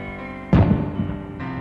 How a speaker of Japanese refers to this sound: ああそうか運動会かと思い至る私が住んでいるマンションの近くに小学校があったそういう季節なんだなと私はまだベッドの中もう一度花火の音がこう告げる